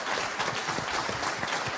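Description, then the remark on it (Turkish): Steady, dense applause from a crowd at a protest as the Turkish channel Olay TV went off the air, many hands clapping in a continuous wash at an even loudness, with no voices standing out. “Protestolarla, alkışlı protestolarla Olay TV'nin ekranı nasıl karardı?”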